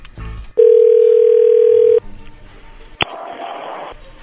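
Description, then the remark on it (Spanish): A steady telephone dial tone hums for over a second, then cuts off, followed by a short click and a stretch of line noise as a call is placed. “Ahí se está marcando, no haga ruido.”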